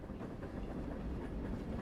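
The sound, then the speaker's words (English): A train rushes past on the rails of a rail yard without slowing, a steady loud low-frequency rumble with faint rhythmic clatter of wheels over track, continuous throughout, with no voices. “A whistle sounds in the distance, and we watch a second train approach. It shoots by without slowing, so we resign to our hiding spot in the bushes.”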